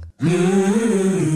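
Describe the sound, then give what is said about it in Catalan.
A brief sonic logo of the food brand Gallina Blanca: one loud, sustained melodic tone that swells slightly in pitch and holds for over a second, heard on its own without any talking. “Gallina blanca.”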